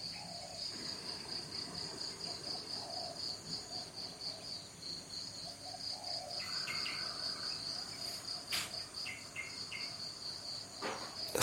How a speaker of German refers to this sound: dich tragen von den Hintergrundgeräuschen, von den Vögeln, den Grillen, den Zirpen und was dann auch so alles in den Bäumen sitzt.